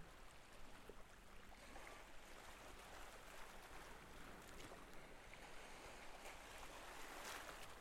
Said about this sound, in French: Teinte brillante, changeante, mouvante, au rythme lent d'un ressac de moins en moins assourdi par la progression.